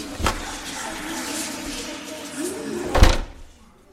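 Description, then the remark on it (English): A door is opened: a sharp clunk of the latch, a few seconds of scraping, rumbling movement, then a heavier thud as it swings, moderately loud. “Head to the door. I'm right behind you. It better open.”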